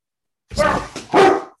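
A dog barks twice, loud, each bark a short harmonic burst with a brief pause between them; nothing else is audible around the barks.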